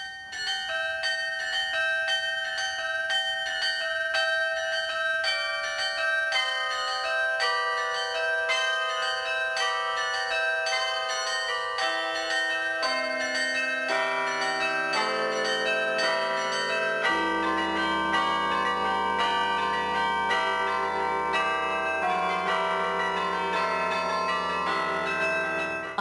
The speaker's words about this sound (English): And so there are a lot of arrangements made for carillon music. Not everything that I play in December is Christmas.